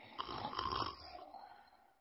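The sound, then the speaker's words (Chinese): A man snores in one long, raspy rattling breath that swells and then trails off into a softer, fading wheeze. There is no talking. “哎呦，这些狗才睡觉像蜗牛”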